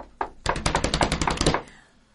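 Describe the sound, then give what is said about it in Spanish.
A rapid flurry of knocking on a door at a radio programme by little ones outside: one lone knock, then about a dozen quick, evenly spaced raps, fairly loud and sharp, with no voices, fading to quiet at the end. “vamos, a, llamar a esas criaturitas que están ahí golpeando la puerta.”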